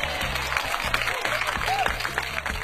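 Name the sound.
applause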